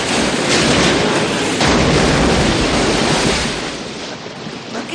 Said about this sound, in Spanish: Se bajan del coche y el hombre que los ha salvado coloca un palo en el acelerador, cierra la puerta y pone la marcha. Al instante, el coche toma velocidad y cae al río.